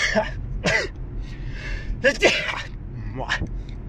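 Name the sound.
sneeze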